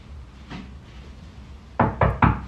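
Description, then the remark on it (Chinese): Three quick, loud knocks on a door in a steady rhythm, preceded by a faint, softer tap against an otherwise quiet background, as someone arrives to deliver a meal. “但是他敲门那一刻，你还是会紧张一下。”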